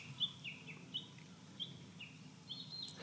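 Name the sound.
birdsong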